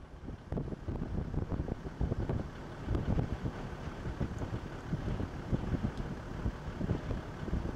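Strong, cold wind blowing from the east buffets the microphone in continuous, gusty rumbles, a dense low roar with irregular bursts and no voices, at sunset at a camp set up behind a rise.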